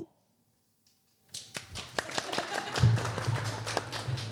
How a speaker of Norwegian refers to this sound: Ja, litt høflig applaus der.